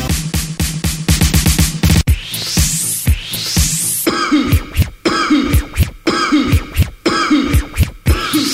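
Repeated harsh coughing bursts are chopped into a steady rhythm over an electronic beat, loud, with swooping scratch-like sweeps between them; no one speaks.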